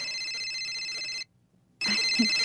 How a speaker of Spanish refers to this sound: Permítame, voy a contestar el teléfono, ¿eh?